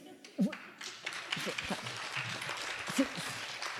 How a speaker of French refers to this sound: Je, sens qu'il y a des gens qui veulent applaudir.